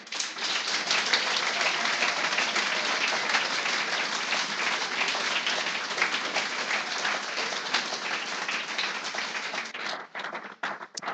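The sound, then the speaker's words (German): A church audience applauds the children's ministry workers with sustained, dense clapping that holds steady for around ten seconds before thinning out into a few scattered claps at the end. “Darum für euch heute speziell und alle, die sonst im Kinderdienst tätig sind und die zukünftigen, die dabei sein wollen, Gebt ihnen mal einen richtigen Applaus.”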